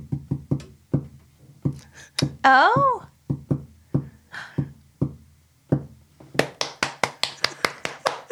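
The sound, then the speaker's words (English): Sharp, dry taps in uneven groups separated by short and longer pauses, tapping out the word "honey" in Morse code, ending in a faster run of brighter taps; a voice briefly exclaims partway through. “And we just all called you honey in Morse code.”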